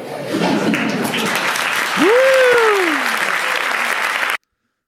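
A dense, steady burst of audience applause lasts about four seconds, with a single rising-then-falling whoop cutting through midway before the clapping stops abruptly.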